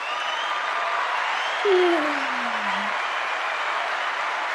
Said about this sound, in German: Applaus für einen Euro. Genau, Applaus für einen Euro.